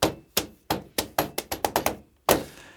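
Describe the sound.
A run of dull metallic thunks, dubbed foley footsteps in a German-language dub, as people climb down from the back of a car's hood: about ten impacts in an uneven walking rhythm that quickens in the middle, then a pause and one heavier final thud.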